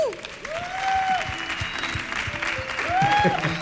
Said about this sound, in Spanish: Fuerte el aplauso